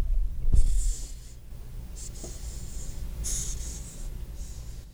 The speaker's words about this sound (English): It, it sounds like air leaving a balloon. That's kind of the idea. They're pushing this air out of their spiracles, which are their lung openings and it's meant to ward off predators. Little cockroach buddy. Oh, it really is hissing.